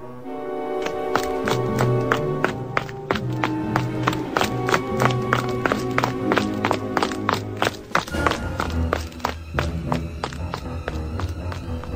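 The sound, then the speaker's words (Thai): Rapid, evenly spaced footsteps of a bandit leader and his henchmen running toward the sound of a gong, loud, continuing steadily over a sustained musical background with a brief shift in the bed partway through. “แล้วนายโจรและลูกสมุน ต่างก็วิ่งตามเสียงกองนั่น”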